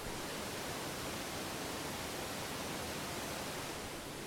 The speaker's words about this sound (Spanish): Es el escándalo que arma este salto, cayendo sobre la piedra con mucha fuerza y eso que ahorita no está en su época más sublime, porque estamos en enero y por lo tanto no tiene tanta agua.